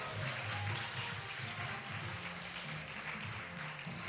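An audience claps steadily for Michel Vuillot at the end of a broadcast, a dense, continuous wash of applause holding at an even, fairly loud level throughout, with no voices rising above it.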